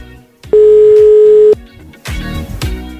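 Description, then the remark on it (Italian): A single loud, steady telephone ringback tone lasting about a second, heard on a radio show's outgoing call to a listener, with faint background noise around it and a rustle of louder noise afterward. “Suona libero, vediamo.”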